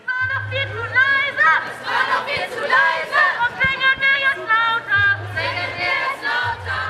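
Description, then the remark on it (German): A crowd of many voices at a Fridays for Future climate protest chants and shouts together in a steady, rhythmic cadence, loud and dense, with a low hum running underneath at times. “Im September demonstrierten erneut weltweit vor allem jüngere Menschen für den Klimaschutz.”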